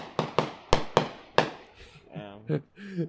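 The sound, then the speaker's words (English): Fireworks pop outdoors, seen from a backyard in Pomona, in a quick, uneven burst of about five sharp, loud cracks, each ringing out briefly, followed by a voice speaking as the explosions stop. “For the people listening, we got fireworks going on out here in Pomona.”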